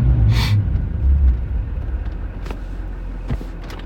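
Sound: truck engine running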